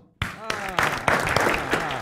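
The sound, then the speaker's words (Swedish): A short burst of applause welcoming first guest Magnus Dahlborn: a handful of sharp, evenly spaced claps, roughly three per second, with voices cheering and talking over them throughout. “Vi ger en applåd tycker jag till Magnus Dahlborn.”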